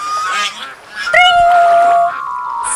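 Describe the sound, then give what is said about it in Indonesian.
A goose honks loudly: a brief nasal call, then a long, sustained honk that tapers off, with no one talking. “Ia baru ingat kalau ia sudah menjadi seekor angsa sekarang.”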